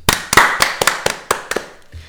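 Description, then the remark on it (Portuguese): A short burst of applause: about nine sharp hand claps in a quick, slightly uneven rhythm, then it stops. No one talks. “Portanto, uma salva de palmas para isto.”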